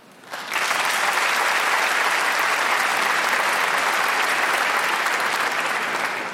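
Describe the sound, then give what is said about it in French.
An audience bursts into loud, steady applause to show who likes saying swear words, after a brief quiet start, the dense clapping holding at full strength for several seconds without letting up. “D'ailleurs, en parlant de ça, par applaudissement ce soir, qui aime dire des gros mots”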